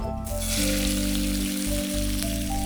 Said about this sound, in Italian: Allora il fumetto sempre con l'olio extravergine. ci mettiamo un po' di trito d'aglio. Va bene lo facciamo rosolare.